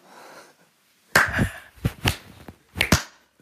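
A slow clap: a handful of sharp, crisp hand claps with uneven pauses between them, fairly loud against an otherwise quiet background.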